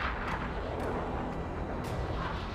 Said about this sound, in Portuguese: Vila de Nakla, Abu Omos, Alexandria, Egito, 1911. Enquanto pessoas caminham pelo deserto, ouvem um estrondo. Ao olhar para o céu, eles observam atentamente uma bola de fogo se fragmentando em diversos pedaços.